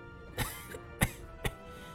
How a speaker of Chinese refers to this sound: …说着说着，又咳嗽了几声。